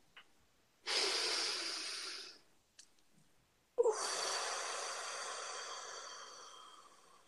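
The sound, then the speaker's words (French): A deep breath taken alone: a steady, airy inhale lasting over a second, a short pause, then a longer, breathy exhale that starts abruptly and slowly fades away. “Une respiration.”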